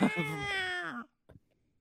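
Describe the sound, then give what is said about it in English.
A voice imitates a screeching cat: one loud, drawn-out, whiny yowl that slides downward in pitch for about a second, followed by a brief soft sound and quiet. “gonna have half cuts on these fucking cat screeches.”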